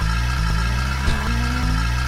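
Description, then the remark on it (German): A car engine is started and runs with a steady low rumble as the car sets off, its pitch stepping up slightly partway through, with a brief knock near the middle and no voices. “Motor an, Motor an und los.”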